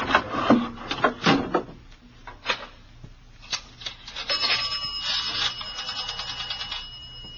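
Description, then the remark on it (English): Clatter of a telephone on a dock being picked up and handled, followed by a steady run of quick mechanical clicks and a faint buzzing tone as a call is placed, with no one talking. “Well, I'm going to call in from the phone on the dock.”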